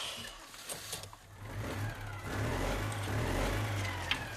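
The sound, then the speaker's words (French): A car engine revs and accelerates, its low droning growl building and swelling steadily louder over a few seconds before holding at a strong, sustained roar. “Oh non, cette voiture”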